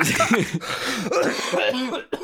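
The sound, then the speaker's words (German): A loud coughing fit: several harsh, throaty coughs follow one another in quick succession with hoarse, voiced edges, then stop abruptly. “Ich hab gehustet, du Wichser.”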